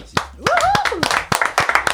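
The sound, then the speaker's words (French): Scattered applause from a small group, about a dozen sharp, uneven handclaps over two seconds, with a rising and falling vocal whoop over the first half; about half of the clapping comes from the two people being applauded. “50% de ces applaudissements sont réalisés par eux-mêmes.”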